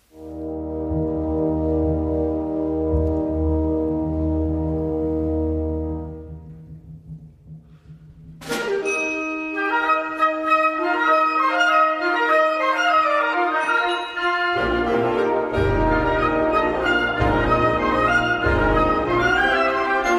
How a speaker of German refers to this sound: dieser wunderbare große orchestrale Klang von einem Blasmusikorchester ausgeführt mit dem …